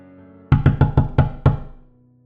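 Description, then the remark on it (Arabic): Six loud, heavy knocks pound on a door in quick succession, so hard they shake the door, with a slightly longer gap before the last one, booming, with no voices. “المرة دي الخبط كان عالي جدا لدرجة إنه هز الباب”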